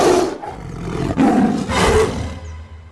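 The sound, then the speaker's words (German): A tiger roars loudly, a deep rumbling growl that swells in two long surges before trailing off into quiet. “Dann fraß der hungrige Tiger die kleinen Nervensägen auf.”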